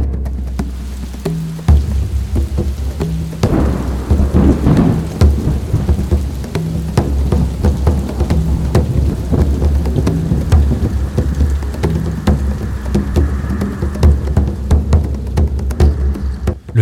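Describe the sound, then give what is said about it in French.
A loud thunderstorm: heavy rain pours steadily while deep thunder rumbles and throbs low throughout, with sharp crackling spikes scattered across the downpour. No voices. “Il ne reste plus qu'un seul et énorme nuage orageux auquel il est impossible d'échapper.”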